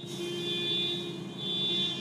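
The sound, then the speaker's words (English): A car alarm blares with a shrill, steady electronic tone that swells and fades in two waves over a low droning hum, moderately loud with no one speaking. “The friggin' alarm that was going off, it was like, it wasn't even a Kia.”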